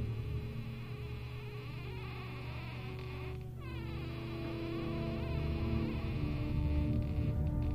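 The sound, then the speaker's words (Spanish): A dense, steady tropical rainforest ambience fills the space, with insects buzzing and droning continuously and a brief sweeping chirp rising out of the layered hum midway through. No one speaks. “Es una selva tropical.”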